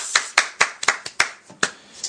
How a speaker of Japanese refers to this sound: いや今拍手したら親指めっちゃ痛くなっちゃったよ痛い痛い痛いって